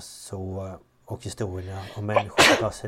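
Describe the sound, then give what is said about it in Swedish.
A single sharp, loud sneeze bursts out near the end, cutting into a person's ongoing speech, with talking resuming right after. “Prosit!”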